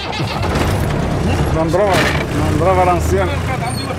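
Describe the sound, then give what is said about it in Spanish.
A rough, steady engine rumble from a very old car, with three people crammed into the front seat, runs throughout, loud, with voice-like sounds rising briefly over it in the middle. “¿Este es el coche con el que va?”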